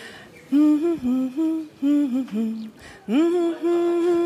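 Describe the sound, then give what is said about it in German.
A voice hums a pop song melody alone for a guess-the-song game, a string of short sustained notes stepping up and down in a mid register, a brief pause, then longer held notes. “Ein bisschen lauter könntest du singen. Summen.”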